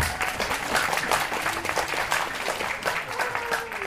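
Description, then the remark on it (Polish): Steady audience applause, a dense wash of many hands clapping at a fairly constant loudness, with faint voices mixed underneath. “i prosimy brawa.”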